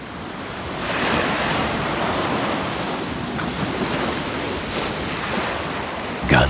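Steady, broad rushing of ocean surf, waves washing in with gentle swells of loudness and a soft wind-like hiss, continuous throughout with no voices.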